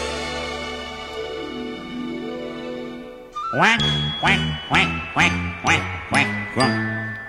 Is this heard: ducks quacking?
yes